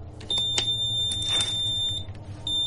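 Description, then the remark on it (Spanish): A high, piercing electronic beep from a frequency-measuring machine in a bedroom sounds steadily, growing louder as it is moved closer to a lamb, cutting out briefly near the end before resuming, over a low background rumble with a few faint clicks. “Entre más lo acercaban, más fuerte se hacía el sonido del beep de la máquina.”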